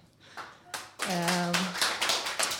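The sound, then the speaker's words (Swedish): An audience bursts into applause for Radio Totalnormal's third anniversary, a dense, steady wash of many hands clapping that holds to the end, with a voice speaking briefly over it at the start. “Ja, en stor applåd.”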